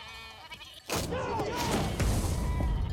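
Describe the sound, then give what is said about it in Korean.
Goats bleat in a wavering, nasal cry that rises up abruptly and trails off over a couple of seconds, loud above a low rumbling background. “10팀이 어, 나와가지고 4명이 정찰을 하러 가는데 어, 염소우지기를 만나요.”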